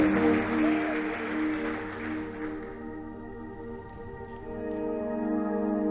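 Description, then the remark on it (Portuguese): A church audience applauds Jesus in a dense burst of clapping over steady, sustained keyboard chords; the clapping thins out after a few seconds, leaving the held music ringing on alone. “Você pode aplaudir a Jesus mais uma vez, por favor?”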